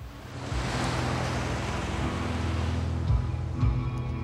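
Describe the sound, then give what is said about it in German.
Steady rushing of ocean waves, a continuous broad wash of surf with a low rumbling hum beneath it and a couple of slightly louder surges near the end, no voices. “Todtraurige Musik löst das Rauschen der Wellen ab.”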